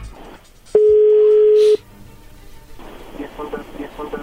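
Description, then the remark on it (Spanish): A telephone number being dialed: a loud, steady electronic beep holds for about a second over a faint hiss, then gives way to a rough, crackling line noise. “vamos a llamarle en este momento”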